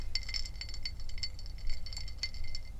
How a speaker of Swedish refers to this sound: Det är vaniljvodka med is. Och Coca-Cola. Och lite citron. Och lite citron. Ganska gott fan. Om ni hör något klirrande ljud så är det isen som slår emot glasen. Jag tycker det ger stämning.